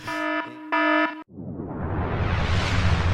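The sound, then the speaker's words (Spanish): A loud alarm sound effect: two harsh, buzzing siren blasts in quick succession, followed by a rising, rushing whoosh of noise that swells until the end. No one speaks. “Eh, bueno, alerta de spoilers.”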